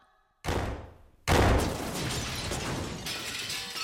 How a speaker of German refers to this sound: Ah, hörst du? Das ist Hürda Skettlir, der freche Türenknaller. Oh, der macht immer einen Lärm.